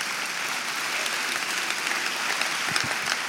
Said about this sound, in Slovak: Amen. Môžete zatleskať, přátelé.